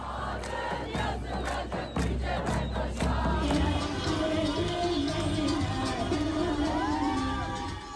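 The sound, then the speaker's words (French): A large, loud crowd celebrates in the streets of Istanbul, Turkey, on the night Ekrem Imamoglu of the CHP is elected mayor. The crowd shouts and cheers continuously, with rhythmic clapping or chanted beats in the first few seconds before the roar blends into a steady, jubilant din. “Ce soir-là, c'est la liesse dans les rues d'Istanbul.”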